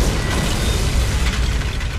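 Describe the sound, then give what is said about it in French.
A heavy explosion destroying a building wall about 50 metres away roars with deep low-end rumble and dense crackling debris, holding steady and loud for about two seconds with no voices. “Putain, c'est quoi ce délire ah, Une explosion venait de détruire le mur du bâtiment à 50 mètres de moi.”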